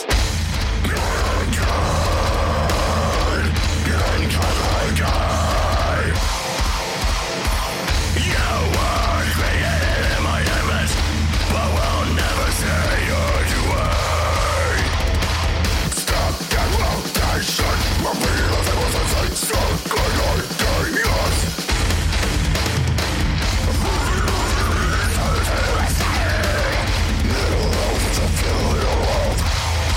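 A loud modern hardcore metal track, a new single from a project created in Switzerland, with a dense wall of distorted guitars, vocals woven through, and bursts of pounding, stop-start drum hits partway in and again later on.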